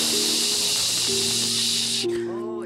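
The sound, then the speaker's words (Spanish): Steady, loud white noise, played to help a child sleep at night and during naps, hisses continuously with a low humming tone underneath; near the end the hiss drops away slightly and a faint voice-like sound emerges. “¿Pero hasta qué edad tú sigues a los 18 va a seguir escuchando el ruido blanco?”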